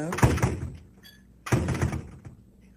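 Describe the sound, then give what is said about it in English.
A door shuts with a heavy thunk, followed about a second later by a second dull thud, each ringing briefly before fading into quiet. “Then she whispers something to me like, they know when the door is shut.”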